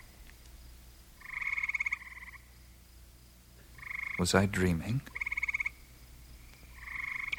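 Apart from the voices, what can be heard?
frogs croaking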